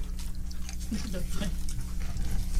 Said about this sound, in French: m'en prendre une chip, puis ouais. m'en la laisser dans ma bouche en prenant une gorgée de Mountain Dew, puis je vous reviens avec ça dans 35 secondes, voir que ça goûte.